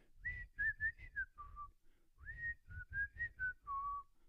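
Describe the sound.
A person whistles a short melody in two phrases, clear tones gliding between pitches with a brief pause in the middle, fairly loud with no talking.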